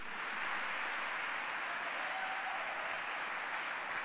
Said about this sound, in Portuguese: Vamos aplaudir mesmo e bradar a ele.